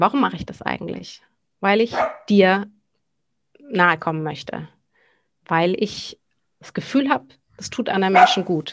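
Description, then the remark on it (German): The speaker's own dog barks a few times in the background while a person keeps talking in the foreground; the barks are fairly faint and partly buried under the speech. “Entschuldigung, man hört meinen Hund im Hintergrund.”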